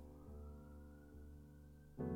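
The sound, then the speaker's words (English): A faint police siren sounds, holding steady tones that shift pitch every second or so, with no voices over it. “hold on, there's an alarm.”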